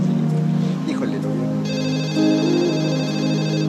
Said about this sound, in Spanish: Eh, este teléfono está sonando, bueno, ahorita no lo sabemos, pero bueno, quienes ya vimos la telenovela cuatro veces, ya sabemos que están presentándonos el, departamento de un, escritor.